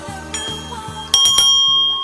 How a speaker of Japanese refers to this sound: はい、この鐘をね、あのベルを鳴らしたら